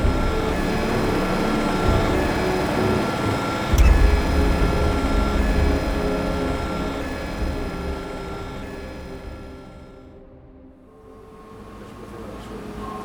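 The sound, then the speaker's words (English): A steady mechanical whirring hum of a drone being lowered, with a brief clunk near the start, holding loud before its higher tones fade and dip, then return more quietly. No one speaks. “Lower the drone!”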